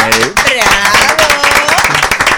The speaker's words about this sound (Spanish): Bienvenido, vamos a dar un aplauso.